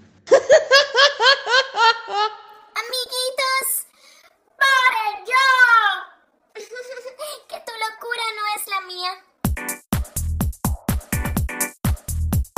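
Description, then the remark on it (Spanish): A canned laughter effect: several voices burst into loud, bouncy laughs in quick waves, followed by a few seconds of sharp, rapid hand clapping at the end. “si supieran que solo es un efecto de sonido.”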